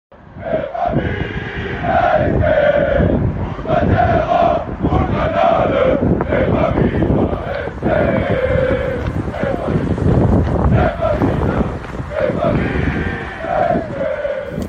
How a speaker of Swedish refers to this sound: Höjdpunkten var istället Frankfurts fans de var portade, men många reste ändå till Skottland, stod på en kulle utanför arenan i kylan och blåsten och sjöng sig hesa.